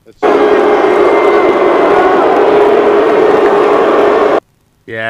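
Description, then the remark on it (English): A crowd-cheering sound effect: a loud burst of cheering and roaring fills about four seconds, steady and dense, then cuts off abruptly into silence before a voice begins speaking. “I don't know why the crowd crowd just got you on that one.”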